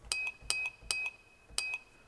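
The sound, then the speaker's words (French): A glass is struck four times, each clear, bright ring followed by a softer delay-effect repeat a moment later, with a thin high tone lingering between hits. No voices. “C'est bon, un verre qui est frappé.”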